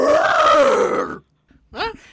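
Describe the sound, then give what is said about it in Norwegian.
A person imitates a bear's roar with a long, loud, rough growling voice lasting about a second, followed by a pause and a short rising vocal sound like a brief laugh or exclamation. “Det er sånn brøl dere snakker om, ikke sant? Et bjørnebrøl.”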